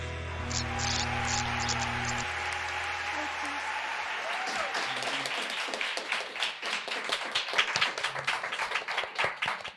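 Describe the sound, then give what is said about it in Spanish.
A steady low hum fills the opening seconds, then hands start clapping as the host asks for applause to welcome a guest, quickly building into brisk, dense, irregular applause that grows louder toward the end. “Tía, dicen antes que no iba a aplaudir preto el micrófono.”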